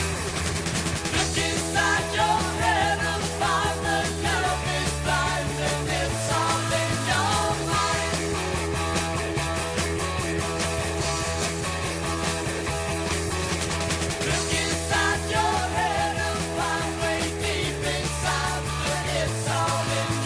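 A loud, dense prog rock song by a very old prog band plays throughout with no talking, built on a driving bass line that shifts between sustained low notes under busy guitars and cymbals.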